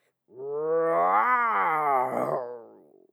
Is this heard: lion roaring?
yes